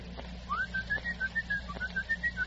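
A person whistles a quick signal for when someone comes in: a rising slide followed by about a dozen short, bright, evenly paced notes, clear, with no talking, over a faint low hum.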